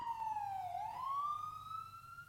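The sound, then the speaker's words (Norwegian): An arriving ambulance's siren wails in a single long sweep, dipping in pitch then rising slowly, steady over low traffic rumble, with no voices. “Jeg var bevisst da ambulansen kommer, og insisterer på å gå inn i ambulansen selv.”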